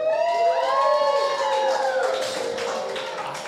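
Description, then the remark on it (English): A packed crowd at a live audience show at Dave's Bar applauds, a steady patter of many hands clapping, with rising and falling whoops and whistles cutting through at the start before the clapping carries on alone. “Give it up for yourselves, guys.”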